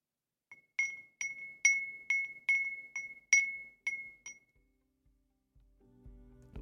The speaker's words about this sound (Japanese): これはですね江戸風鈴というものでこちらもネットで見つけたんですけれども職人さんが手作りをしている篠原風鈴本舗という江戸川区にあるお店で作っているものらしいんですが